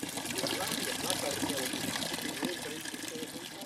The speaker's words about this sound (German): Nach dem Konzert verschließen sich die beiden Flügel des Orgelschranks und es dominiert wieder das Rauschen der Brunnen die aus über 1000 Löchern erfrischendes Nass spritzen.